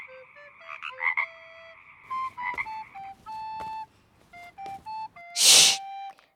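A frog croaking in a string of short, tonal, slightly whistly calls at an uneven rhythm, clear, with one louder, harsher burst near the end and no talking.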